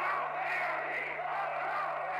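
A large crowd shouts together in a steady, dense roar, many voices blending into a continuous wall of noise with no pauses, sounding like an old, slightly muffled recording.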